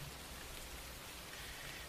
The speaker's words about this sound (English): Uh, no. I mean, again, there's a couple of windows smashed out, so you're still going to hear that rain, but it's it's a lot less intrusive.